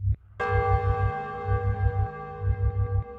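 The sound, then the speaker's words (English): A single loud bell strike rings out at once, its bright metallic tone sustaining and slowly fading over a low, pulsing rumble beneath. “And the sound of a bell rings out.”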